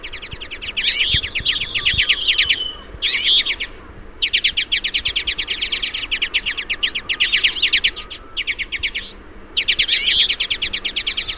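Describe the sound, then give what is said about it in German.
A flock of twites, small finches, chirps and twitters continuously where only a little snow lies, dense overlapping calls in rapid bursts with brief pauses, fairly loud, with no talking. “Diese Berghänflinge, äh, wenn nur so wenig Schnee liegt wie hier jetzt gerade, dann schaben die sich einfach die Samen unter dem Schnee vor, das können die.”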